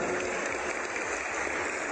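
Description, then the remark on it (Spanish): Steady, dense applause from a crowd in the state of Coahuila, Mexico, for the members and councillors of the National Electoral Institute, a continuous wash of many hands clapping at once with no individual claps standing out, holding at an even level throughout with no voices over it. “Pido un fuerte aplauso para los miembros y los consejeros del Instituto Nacional Electoral”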